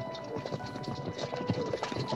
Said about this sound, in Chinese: 明空听见马车的声音远去